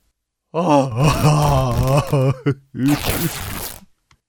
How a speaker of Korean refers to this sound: 딸의 칭찬 소리에 입다는 자신의 옷을 찢으며 울부짖습니다.